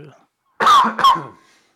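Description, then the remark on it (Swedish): Two quick, loud coughs in close succession, each a sharp burst that trails off into a brief raspy tail, with a faint voice just before them. “Ursäkta mig, jag var tvungen hosta.”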